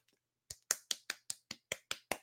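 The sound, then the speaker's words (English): A quiet golf clap: about nine soft, light hand claps in a steady, even rhythm, with no one talking. “Golf clap, man.”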